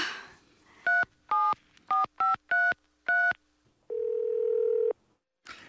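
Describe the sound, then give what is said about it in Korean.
Six quick telephone keypad beeps in an uneven dialing rhythm as a call is placed to a daughter-in-law, followed by a longer steady electronic tone, clear over faint background noise with no talking. “당장 애미한테 전화해서 오라고 안 해?”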